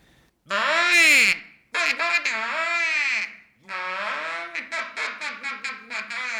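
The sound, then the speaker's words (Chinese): A suona fitted with a long, detachable bowl-shaped bell blares loudly with a piercing, nasal tone, playing long bending and sliding notes, then a quick series of short, punchy repeated notes. No one speaks. “將嗩吶吹成薩克斯風的第一人”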